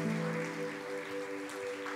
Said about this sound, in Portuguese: Diga amém e dê um aplauso bem forte para Jesus.